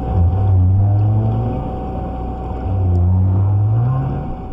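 Two low, rising right whale moans on a scratchy 1956 underwater tape made by William Schevill of the Woods Hole Oceanographic Institute, each lasting over a second and sweeping upward in pitch, set against a steady rumbling hiss of background noise.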